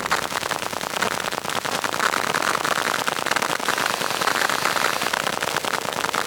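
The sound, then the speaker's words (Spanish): A modem's electromagnetic activity, from data traveling over the Internet, picked up through a transducer: a dense, steady crackle of rapid clicks and hiss, fairly loud and unbroken for several seconds, with no voices. “Es un transductor que toma la actividad electromagnética del módem.”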